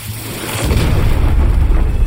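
A heavy, deep crash hits after a brief pause and rolls on as a loud, booming rumble, as a chunk of aircraft fuselage debris slams down.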